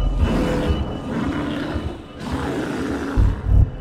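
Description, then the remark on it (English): A bear roars loudly, a rough, sustained growling bellow with guttural bursts and low thumps, continuing for several seconds with no talking; the angry bear has whipped around and reared up on its hind legs after being stabbed. “It is mad, it is roaring, and everything seemed to freeze at that point.”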